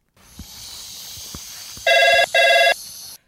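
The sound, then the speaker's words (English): A telephone rings twice in quick succession, two loud, buzzy electronic trills separated by a brief pause, over a steady background hiss. “I've, I've just got to get that. Um, if I can find it through all this hair. Where is my phone?”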